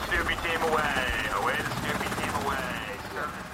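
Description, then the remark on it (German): A military helicopter of naval helicopter squadron 28 on the lead ship of the BALTOPS 23 exercise, its crew getting ready for takeoff; rotors chop loudly and rapidly in a steady throb, with a rising and falling turbine whine layered over it, as if spooling up. “Führungsschiff von Belltops 23, machen sich die Ghost Riders, die Crew des Hubschrauber-Seekampfgeschwaders 28, zum Start bereit.”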